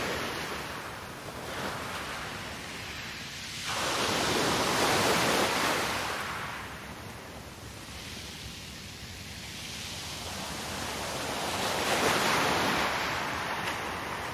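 Ocean waves roll in and break on the shore in slow surges, a broad wash of surf swelling and fading every few seconds, steady, with no voices.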